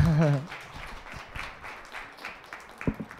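A brief voice at the start, then audience applause for a lecturer after a nearly two-hour lecture on foreign constitutions and their history: a dense, steady patter of many hands clapping at moderate loudness, with a few sharper claps standing out near the end.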